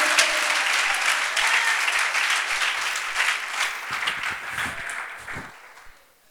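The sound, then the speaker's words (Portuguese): Sustained applause from an audience for the holy name of the Lord, a dense wash of many hands clapping at steady loudness for about six seconds, with some louder individual claps near the end before it quickly fades out. “Se for para o Senhor, aplauda, aplauda o santo nome do Senhor.”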